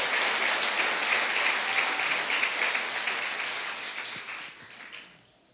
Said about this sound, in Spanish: Yo pienso que Él se merece un aplauso mucho más fuerte.